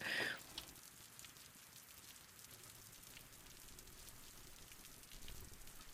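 Steady rain mixed with sleet patters softly on surfaces in a forest, a dense, even hiss with scattered drops, after a brief brighter burst at the very start; no voices.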